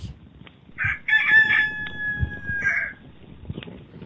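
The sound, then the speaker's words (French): A rooster crows once in the morning light, a loud, drawn-out cock-a-doodle-doo with a harsh, wavering tone, rising then falling away, against a soft rustling background. “À cet instant, un cri retentit dans la lueur du matin. Le chant d'un coq.”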